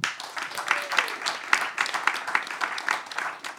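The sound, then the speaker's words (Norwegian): An audience applauds steadily, a dense patter of many hands clapping at once with sharper individual claps popping through, sustained at moderate loudness for a few seconds. “Får også en applaus for at han er kommet.”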